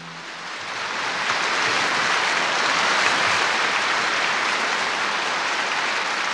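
Loud, sustained applause from a large concert audience cheering a singer, who is called back for repeated curtain calls as the hall stands: a dense wash of clapping that swells in the first second and holds steady throughout, with no voices standing out.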